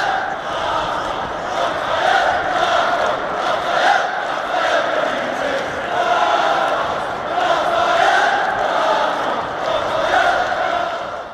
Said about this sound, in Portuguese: Torcida do Newcastle.